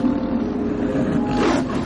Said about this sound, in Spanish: Cuando la luna se muestra en todo su esplendor, un terror paralizante recorre Taikers Mills. En el viento se oyen gruñidos que parecen palabras humanas